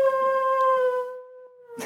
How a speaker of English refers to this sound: it's a dog.